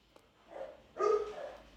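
A dog barks twice, a softer bark followed by a louder, slightly drawn-out one with a yelping, tonal edge, fairly faint overall with no talking.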